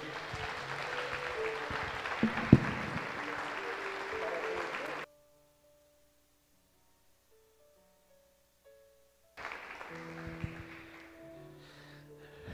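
An audience claps in a dense, steady wash of applause for the Lord for about five seconds, falls nearly silent for a few seconds, then breaks into applause again.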